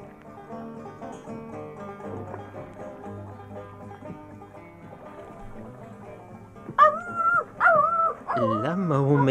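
A dog howls in three loud, wavering bursts near the end in response to someone playing music, its pitch sliding and trembling, after several seconds of sustained, droning musical tones playing on their own.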